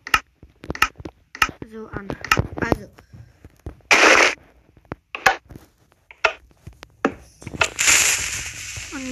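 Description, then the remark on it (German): A run of sharp clicks and pops, then TNT being lit: a short hissing burst and a louder, steady fuse hiss that sizzles through the last second or so. “Ähm, ich zünde jetzt erstmal die Tint an. Ich muss erstmal TNT anzünden, aktivieren.”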